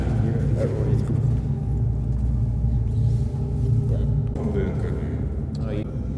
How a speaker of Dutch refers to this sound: Nou, het geluid wat je nu hoort, is het geluid uit het universum. Het geluid uit de ruimte. Dat is door NASA ooit een keer opgenomen. Door die oude satellieten die nu al heel ver eh, weg zijn.